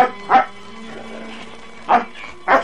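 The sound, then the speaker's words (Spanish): A dog barks three times, one short bark, a pause, then two more close together, against a low, steady background hum. “El perro iba directo, sostenido con un mecate por su reino.”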